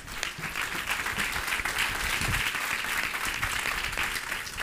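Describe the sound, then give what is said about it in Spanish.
Loud, sustained applause from a crowd, a dense steady patter of many hands clapping at once with no break, holding an even level throughout and no voices standing out. “Right ese fuerte aplauso ahora sí.”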